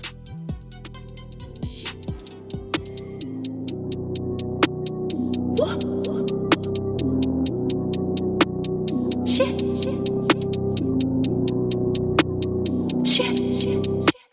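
An instrumental hip hop intro with steady, punchy drum hits over a deep bass line and a sustained melodic layer. It plays without vocals at an even volume before cutting off abruptly.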